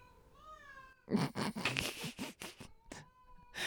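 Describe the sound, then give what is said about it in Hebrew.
A cat meows repeatedly, a drawn-out tonal cry followed by louder, strained, scratchy yowls that rise and fall in quick succession with brief pauses between. “והנה, יש לנו פה אה, תינוק שהולך על ארבע עם הרבה פרווה, והוא נורא שורט.”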